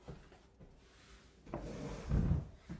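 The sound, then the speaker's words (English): A chair is shifted and set into place, with a brief scrape followed by a heavier low thump and a small knock at the end. No one speaks. “Let me get this chair so that I can”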